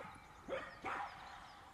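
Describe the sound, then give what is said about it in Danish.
Two quick dog barks close together, moderate in volume, over a steady outdoor hiss with no one talking. “Det kunne jeg også høre på hunden.”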